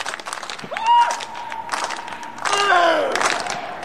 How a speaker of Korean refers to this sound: 관중들의 박수를 유도한 우상혁이 힘차게 기합을 넣습니다.